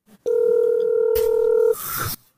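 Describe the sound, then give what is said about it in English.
A steady, loud telephone dial tone hums for about a second and a half while a call is being placed, then gives way to a brief burst of harsh static-like noise before cutting off. No one speaks. “Hold on, let me call her.”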